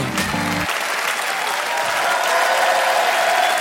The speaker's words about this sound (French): Mesdames et messieurs, bienvenue, bienvenue au Montre Comédie, édition audio. Préparez-vous maintenant à accueillir notre prochain artiste et faites du bruit où que vous soyez pour Yann Marguet.